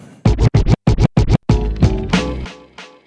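Rhythmic turntable scratching opens a German rap song with six quick, choppy bursts, then gives way to a dense, loud stretch of music with a sustained beat.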